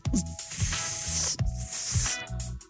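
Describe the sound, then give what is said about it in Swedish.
A steady, loud hiss and crackle like food sizzling on a hot grill, running continuously with a faint recurring low thump underneath, and no one talking. “Nej, det är lite grann ljudet av en stekhet grill, för än är säsongen inte över.”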